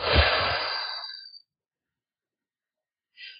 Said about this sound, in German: Also ich atme ganz tief durch die Nase ein, so richtig so. Und dann durch den Mund aus.